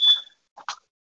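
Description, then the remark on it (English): A short electronic chime from a home security system beeps once, clear, followed by a couple of quick softer blips, triggered when someone opens a door or window in a house, with no talking around it. “Like it it beeps in here anytime someone opens a door, a window, like but it triggers in our bedroom and I don't know why it's beeping so much.”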